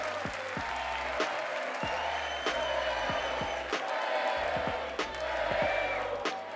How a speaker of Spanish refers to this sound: Fuerte, no, dale un fuerte aplauso.